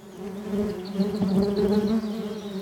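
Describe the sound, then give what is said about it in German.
Steady buzzing of bees droning continuously throughout, a dense hum that swells slightly midway and holds without pause; no voices are heard. “Bienen stechen nämlich wirklich nur, wenn sie sich bedroht fühlen.”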